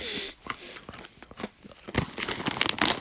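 Loud crunching of a stale dry snack being chewed, a run of sharp brittle crackles with brief pauses between bites. No one speaks.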